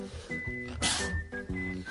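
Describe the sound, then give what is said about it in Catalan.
A single sharp sneeze bursts out loudly in the middle, a short breathy blast over a faint steady background of soft tones and low hum. “Salut.”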